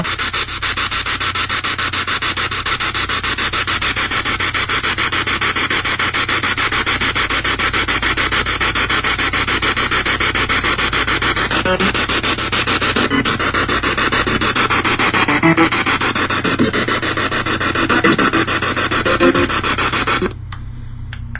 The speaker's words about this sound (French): les deux derniers segments à vous faire écouter du bruit blanc